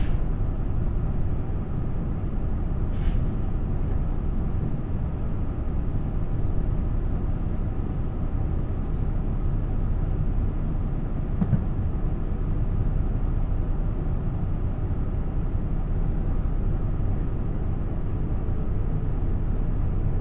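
A steady, heavy low rumble fills the whole stretch, heard onboard the limited express Nanpū No. 20 running on the Dosan Line from Ōboke to Tadotsu, with faint brief clicks and a thin high whine now and then, no voices.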